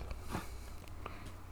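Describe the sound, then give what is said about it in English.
A pet named Simba sneezes once, a short, quiet, breathy burst, followed by a few faint soft clicks and snuffles. No one speaks. “Bless you, Simba.”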